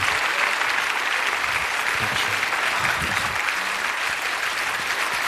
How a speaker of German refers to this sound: Ja, vielen Dank. Danke, meine Damen und Herren. Ich freue mich über den äh, Applaus